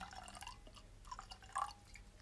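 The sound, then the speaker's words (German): A drink trickles and splashes as it is poured into a glass for about two seconds, fairly quiet, with a bright gurgling tone. No one speaks. “Da schenke ich mir gleich nochmal was nach.”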